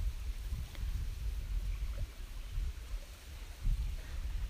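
Water laps gently at the shoreline of Lake Shikaribetsu in soft, irregular pulses, with steady low wind rumble underneath. No voices, just a continuous outdoor wash of wind and small waves.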